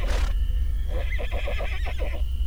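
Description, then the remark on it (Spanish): The black charro's horse whinnies with a rapid, quavering series of pulses lasting about a second, set over a low, steady rumble with a brief burst of noise at the very start. “Entonces el charro negro se volvió con su caballo sin pronunciar palabra y se alejó.”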